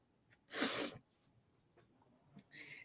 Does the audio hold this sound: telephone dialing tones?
no